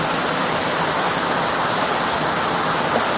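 Steady, dense rain pours down in a continuous loud hiss, with no pauses or voices over the whole stretch.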